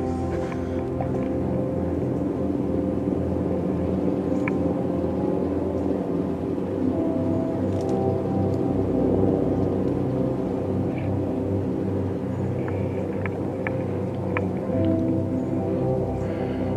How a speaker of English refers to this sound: Maybe you could just kind of dig the fluttering sound of the chopper.